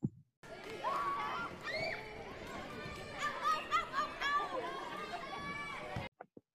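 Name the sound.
children playing and shouting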